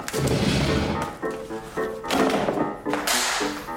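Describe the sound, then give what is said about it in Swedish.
Several sharp hand slaps land in quick bursts as someone swats at a mosquito, with strained vocal noises and breathy effort sounds between the smacks. “Vänta, jag ska döda den.”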